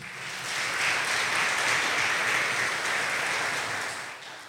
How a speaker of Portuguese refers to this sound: Você pode aplaudir o Senhor por isso?